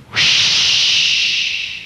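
A sharp, steady hiss of a spraying jet of moisture, a sound effect standing for the moisturized Raleigh 903 cigarette in an advertisement, starts abruptly and holds loud for nearly two seconds, fading slightly toward the end, with no voices.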